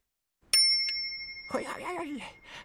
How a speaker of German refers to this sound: Und jetzt hat er alle Fahrradglocken und Klingeln für sich entdeckt. Und ihr sollt aufpassen, die klingen verschieden hoch und verschieden tief. Welche ist denn die höchste Glocke von allen?